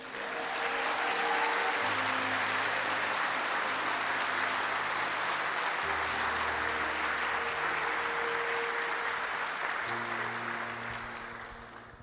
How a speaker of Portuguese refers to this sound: Você pode dar um forte aplauso a Jesus?